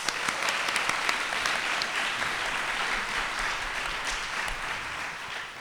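An audience claps steadily for several seconds, a dense, even crackle of many hands with no voices over it, holding at a fairly constant loudness until it ends.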